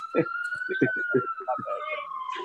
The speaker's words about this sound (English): I hear sirens man.